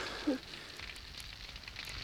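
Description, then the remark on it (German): A campfire crackles softly and steadily, with faint scattered pops over a low, even hiss. Nobody speaks. “Die Flamme des Feuers blendet meine Augen.”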